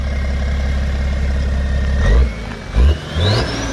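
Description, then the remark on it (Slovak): A diesel car engine idles with a steady rumble, then revs up in three short bursts, the last rising into a higher whine. No one speaks. “Ak máte teda doma dobrý, poctivý diesel, mohli ste ho teda pohľadkať po kapote.”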